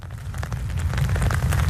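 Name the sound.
light rain falling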